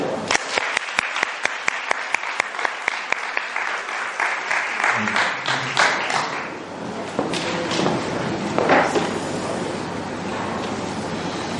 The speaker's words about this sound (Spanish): Un aplauso para ello.